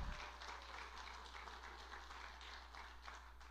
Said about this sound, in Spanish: Da un aplauso por nuestros jóvenes que tenemos en esta iglesia.